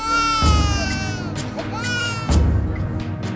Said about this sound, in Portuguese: choro da criança nem chamava tanto a atenção. É só mais uma entre muitas histórias de sofrimento nesse lugar.